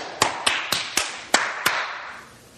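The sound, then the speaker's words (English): Six sharp single hand claps from a preacher during a sermon, at a slightly uneven pace, each ringing out with a noticeable echo that lingers and fades after the last one; no one speaks. “I probably got the good clap there the eighth time.”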